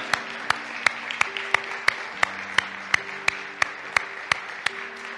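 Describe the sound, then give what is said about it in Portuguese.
A standing audience claps in praise of Jesus Christ in a steady, even rhythm, roughly three sharp claps per second, over sustained low musical chords, with no voices standing out. “Uma vez que estende de pé, dê um aplauso a esse Jesucristo tão maravilhoso que temos.”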